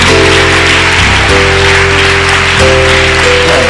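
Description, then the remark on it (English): Many hands clap together in a dense, continuous wash of claps, loud throughout, over sustained keyboard chords that shift pitch a few times. “Can, can you clap your hands?”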